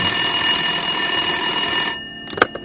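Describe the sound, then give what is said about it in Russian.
A telephone rings loudly and continuously for about two seconds in a young woman's home, then stops abruptly, followed by a few sharp clicks like a handset being picked up. “В доме девушки раздается телефонный звонок.”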